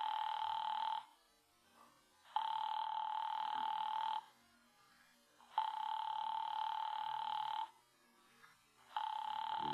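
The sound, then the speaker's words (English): A telephone rings on and on unanswered as an operator rings the called party again, long electronic ring bursts of about two seconds separated by pauses, four rings in steady rhythm, clear with no voices. “Why didn't she pick up that phone? Your party doesn't answer.”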